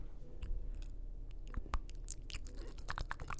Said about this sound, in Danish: Uh, er det en lyd, som dyret siger? Nej, det er bare mig, der har meget tørre læber.